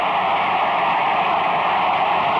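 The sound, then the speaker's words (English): A large stadium crowd roars in a steady, dense wash of noise, loud and unbroken, with no distinct voices, as a 35-yard field goal attempt to win the game is set up with eight seconds left. “Listen to the crowd.”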